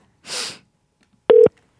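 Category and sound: signal or alarm, telephone number being dialed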